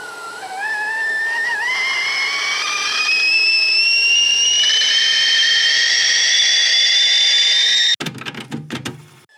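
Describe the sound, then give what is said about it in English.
A stovetop kettle heating on a gas stove whistles loudly and steadily, its shrill tone climbing in pitch for several seconds before cutting off abruptly into brief clattering and rustling. “Or put a simple kettle on a gas stove and have a nice cup of tea.”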